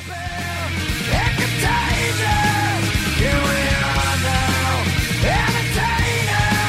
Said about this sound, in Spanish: Escuchen cómo suena esta guitarra, escuchen una guitarra distinta, escondida, que suena, que está al fondo de la canción, pero que esta versión la ha subido mucho. Escuchen la guitarra.